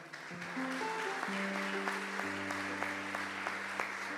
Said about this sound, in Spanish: Denle un aplauso a la palabra.